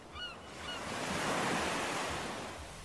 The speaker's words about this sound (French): Bon, c'est vrai que c'est sympa, le bruit des vagues.